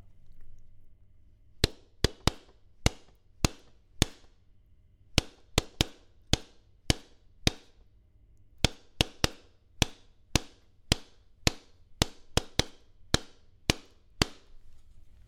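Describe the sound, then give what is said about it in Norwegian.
A series of sharp taps on a book held up to the microphone, like knuckles rapping, beating out the rhythm of a song for listeners to guess, in an uneven, song-like pattern of phrased groups with short pauses between them. “Jeg skal tappe uh, en låt, Hæ? og så skal dere uh, forsøke å gjette på den låten.”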